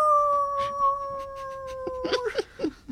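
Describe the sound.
A person imitates a wolf howl, a long sustained wavering tone sliding slowly downward, then breaking into a few short yipping, whimper-like notes at the end. Fairly loud.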